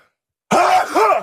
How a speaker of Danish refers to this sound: Jeg skal ah. lige nys.